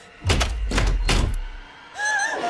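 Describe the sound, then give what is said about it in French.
A door lock in the film Scream clunks shut with three heavy mechanical thunks in quick succession, followed by a brief rising electronic chime. No one speaks. “Non, mais non Porte verrouillée.”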